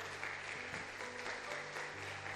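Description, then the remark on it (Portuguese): An audience applauds the Lord during a sermon with dense, steady clapping that fills the whole clip, loud and continuous, with a low sustained tone humming underneath. “Aplauda ao Senhor se você crê.”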